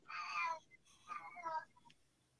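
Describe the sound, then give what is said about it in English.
A cat meows twice in quick succession, each cry drawn out and wavering, fairly soft, followed by a brief faint chirp. “Well, I was telling the cat to shut up.”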